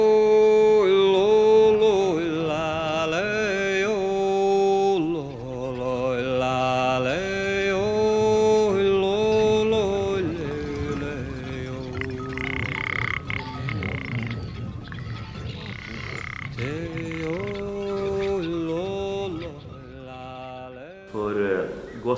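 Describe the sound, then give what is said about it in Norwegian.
A dense, continuous composed collage of nature sounds: layered bird calls blend with low, croaking reindeer grunts from the inland plateau out to the coast, shifting in pitch and overlapping steadily at a fairly loud level, with no talking. “Veldig mye fugler, men også en del rein, lyder av rein fra indre strøk, altså fra vidda og ut til kysten.”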